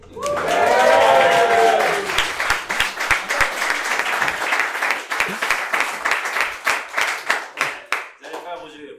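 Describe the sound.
A small live audience claps steadily for several seconds, opening with a burst of cheering voices, then the applause thins into scattered, rhythmic claps before fading as someone starts talking.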